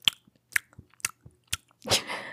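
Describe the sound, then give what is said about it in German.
A voice imitates a dog's wet lip-smacking and chewing: four evenly spaced smacks about half a second apart, then a longer, slurpy smacking burst at the end. “Und dann fängt er an so zu, zu schmatzen, so.”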